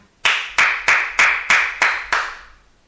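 Seven slow, evenly spaced hand claps, each sharp and bright with a short ringing tail, giving a deliberate, unenthusiastic, sarcastic-sounding rhythm. No voices.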